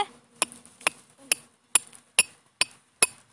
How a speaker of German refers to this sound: Leute, immer dieses Hämmern, was sie da hört, ist, äh...